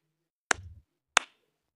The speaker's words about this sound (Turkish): Sen ne düşünüyorsun bu? Abi bu 42 kişiyi alkışlıyorum.